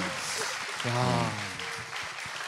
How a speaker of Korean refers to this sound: 박수 한번 좀 부탁드리겠습니다.